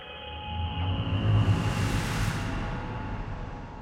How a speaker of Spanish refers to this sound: Estos escalofriantes silbidos persistieron durante casi una hora, retando a los astronautas que, aún bajo estas circunstancias, conservaron la calma en todo momento.